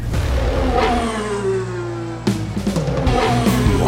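Car engines rev loudly, pitch rising and dropping in a steady drone, then sharper bursts of throttle after a sudden shift, with no talking over them.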